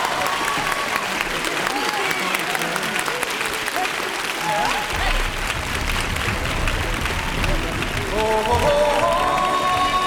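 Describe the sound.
Loud, sustained audience applause with dense clapping throughout, mixed with scattered crowd voices; near the end, music begins to rise under the clapping.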